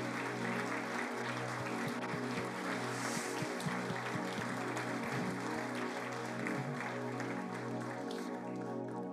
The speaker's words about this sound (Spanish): Dele un aplauso a Cristo Jesús.